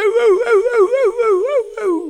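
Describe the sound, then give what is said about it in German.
A voice imitates a seal's call: a loud, continuous warbling moan whose pitch wobbles up and down repeatedly, with one brief break near the end and no other sounds. “Ja, du weißt ja, wie eine Robbe klingt. Das haben die Außerirdischen dann nachgemacht”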